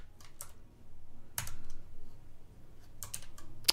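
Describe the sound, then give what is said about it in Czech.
Typing on a computer keyboard without a numeric keypad, with irregular bursts of sharp clicks, a few quick keystrokes clustered together separated by short pauses, against a low background hum; no one speaks. “Já nemám numerickou klávesnici, tak jsem úplně, tak jsem úplně v háji.”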